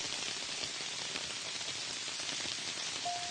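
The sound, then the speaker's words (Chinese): Sudden heavy afternoon rain in a southern summer pours down in a dense, steady hiss of countless drops with no letup, and a faint brief tone surfaces near the end. No one speaks. “还是午后突如其来的大雨。”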